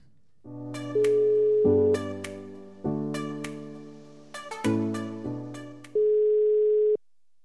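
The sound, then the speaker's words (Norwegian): A telephone ringing tone on an outgoing call to Birkeland, Norway: a sequence of sustained, electronic chord-like tones that change pitch several times before ending on one steady tone, clear and alone with no voices. “Men han tror jeg vi ringer til, så får vi høre åssen det står til ned i Birkeland.”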